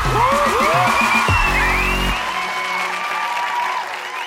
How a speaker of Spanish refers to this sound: Aplauso para los gays.